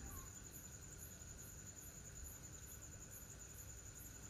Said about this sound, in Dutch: De avond is al gevallen. Het is donker. Je hoort de krekels op de achtergrond. En je hoort de cicade. in de bomen.